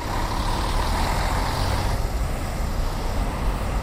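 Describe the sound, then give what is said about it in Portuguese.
Steady, dense traffic rumble from cars and trucks on Avenida da Liberdade at the Marquês de Pombal roundabout, with heavy low engine drone and a constant wash of road noise, loud and continuous with no voices. “O motor automóvel marca a atmosfera sonora.”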